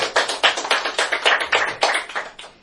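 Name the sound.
audience applause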